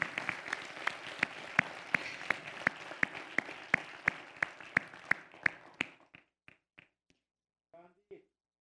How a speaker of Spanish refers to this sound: Eso, merece un aplauso.